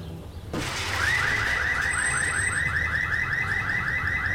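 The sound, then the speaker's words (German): A car alarm wails on and off in a fast, repeating up-and-down siren pattern, loud and steady after a sudden start, with no one talking. “Du hast schon geguckt, ob da nicht ein Auto unten auf dem Bürgersteig steht, oder?”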